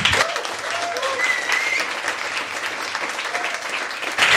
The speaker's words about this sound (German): ich glaube, du hast einen eigenen Applaus verdient.